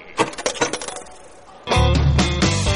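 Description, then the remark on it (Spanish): A handful of coins drop and clatter in a quick burst of bright metallic clinks, then a loud, sustained musical tone abruptly takes over. “hola, hola, caballero, unas moneditas.”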